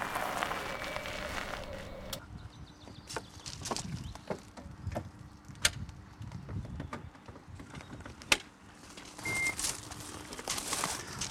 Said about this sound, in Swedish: du satt just kontakten i bilen. Kommer det ström från taket nu? Det gör det, jo. Det, nu laddar den från solproduktion.